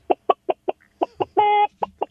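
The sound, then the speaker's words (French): A voice imitates a hen clucking: a quick run of short, evenly spaced clucks, then one sustained squawking note and two more clucks, fairly loud with no other sound. “mais moi, c'est une poule, en fait.”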